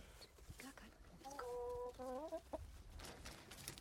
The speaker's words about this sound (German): Aha, ja, da sehe ich einen Hühnerstall. Oh, das ist auch ganz toll, wenn man hinkommt. Was tut es? Gackern.